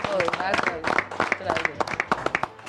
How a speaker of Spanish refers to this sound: Voy a salir una no, aplausos, ¿eh? Muchas gracias.